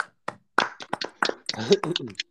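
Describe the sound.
A handful of sharp, irregular hand claps from a few people, starting sparse and then getting busier, with voices chattering underneath toward the end.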